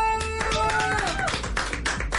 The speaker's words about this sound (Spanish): ¡Un aplauso!